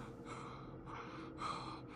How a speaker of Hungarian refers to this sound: Szíve szinte ki akart szakadni a melkasából. A tüdeje úgy zihált, mintha most jött volna fel az óceán fenekéről.